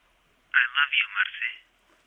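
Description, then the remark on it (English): A cell phone rings with a short, bright electronic alert for a new text message: a quick burst of four or five chirpy pulses lasting about a second, clear, with silence before and after. “Two months had passed since his death, and when Marcelina feared she knew nothing but desolation and rage, suddenly her phone rang with a new message.”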